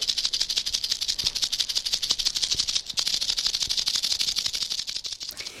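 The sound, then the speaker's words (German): A rattlesnake's tail rattle buzzes continuously, a loud, dry, rapid hiss-like chatter that holds steady for several seconds with brief flickers in intensity. “Es gibt auch Klapperschlangen, die können mit ihrem Schwanz hinten klappern.”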